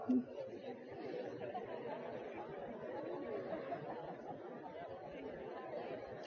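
A crowd of audience members, asked to talk to their neighbors, chatters at once, a steady, overlapping murmur of conversation with no single voice standing out, holding at an even level throughout.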